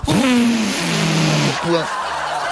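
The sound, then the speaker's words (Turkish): A voice imitates a Şahin or Doğan car revving hard with its exhaust pierced by a nail: a raspy, buzzing vroom that climbs, holds and drops, then revs again briefly; loud, like a sputtering exhaust. “Şimdi tabii bizim ülkemizde aynısını Şahin'le Doğan'la yapmaya çalışan var. Hani böyle egzozu çiviyle delip”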